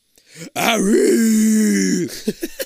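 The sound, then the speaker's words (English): A loud, eerie howl rises in pitch and holds steady for about a second and a half, then cuts off, followed by a few short, quick sounds. “this time, the this howl is, is my favorite fart so far.”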